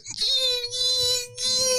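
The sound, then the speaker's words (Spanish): A voice imitates the squealing of a car's brakes, stuck because the car is rarely used, with a steady, high-pitched whine held for nearly two seconds. Three scratchy, hissing surges ride over it, fairly loud. “cada vez que yo saco la guagua, el, carro hace”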